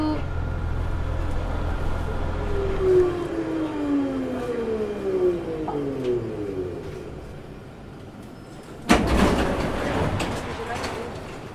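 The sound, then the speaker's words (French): Inside a moving bus: a steady low engine rumble whose whine glides downward as the vehicle slows, then a sudden loud burst of hissing air near the end. “Non, on arrive dans 20 minutes, là, on est dans le bus.”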